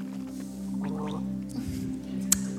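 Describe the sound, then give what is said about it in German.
Someone sipping and swallowing water from a small cup, with soft wet gulping sounds over a steady low hum and a small click near the end. “irgendjemand kann mir gleich vielleicht mal ein Glas Wasser geben”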